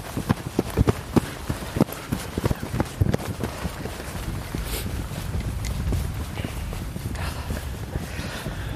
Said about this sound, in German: wir müssen rennen jetzt